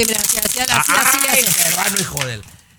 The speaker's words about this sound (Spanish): tú que siempre tragas agua y, molesta cuando apachurras la botella